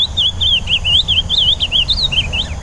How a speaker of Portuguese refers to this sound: E a terceira enquete tinha três concorrentes: o pássaro preto, o azulão, todo mundo conhece, né?